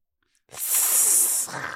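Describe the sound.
A person imitates a snake with a single drawn-out, breathy hiss lasting about a second, fairly loud, trailing off into a softer exhale at the end.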